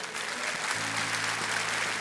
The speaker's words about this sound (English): Come on, can we give God a hand clap for that?